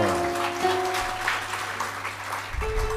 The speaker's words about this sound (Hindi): ताली तो आप बजा रहे हो लेकिन कुछ तो बजा भी नहीं रहे हैं वो सोच रहे हैं कि बाद में बजाएंगे